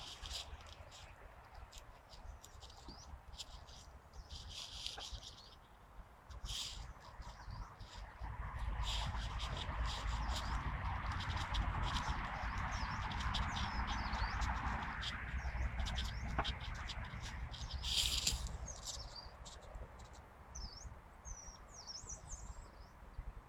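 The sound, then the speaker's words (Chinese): A yellow-browed warbler sings in a tree, with two or three warblers present, in thin, high-pitched chirps and short trills, repeated irregularly throughout, over a steady rushing background noise that swells louder in the middle. “黄眉柳莺在树上鸣唱”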